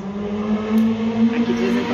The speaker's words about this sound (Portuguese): passam uns, umas motos aqui. É, espero que não atrapalhe o nosso, nosso café.